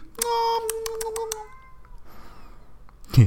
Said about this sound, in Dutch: Ehm, gewoon, ik hoorde een kat. Oh, ja, Indy!